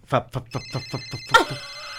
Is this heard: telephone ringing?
yes